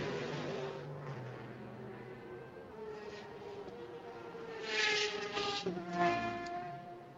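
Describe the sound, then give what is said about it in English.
Engines of prototype race cars, maybe two, drone on track during free practice 1 of the IMSA WeatherTech SportsCar Championship on a beautiful day, a buzzy whine that shifts pitch, then swells louder twice as cars pass near the end. No one speaks. “Got two, think, uh, maybe two of the prototypes are on track at the moment.”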